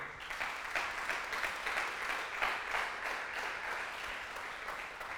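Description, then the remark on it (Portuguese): An audience breaks into steady applause, a dense crackle of many hands clapping at an even level throughout, with no voices over it. “Dá um aplauso aí.”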